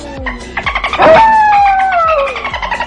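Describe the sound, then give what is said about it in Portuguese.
Dolphin clicks pulse in a quick, steady train while a bright whistle rises and then glides slowly downward, loud, with no voices. “Eu tenho um golfinho.”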